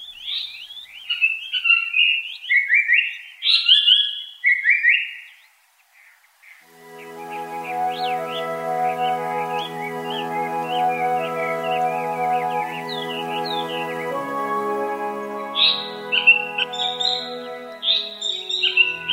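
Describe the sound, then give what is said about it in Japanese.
A Japanese paradise flycatcher sings clear, whistled phrases in bursts on Mount Takao. Partway through, soft sustained music fades in beneath the song, and the bird keeps calling over it. “高尾山の豊かな自然が三高町の命をつなぎこのさえずりがいつまでも聞こえることを祈ります”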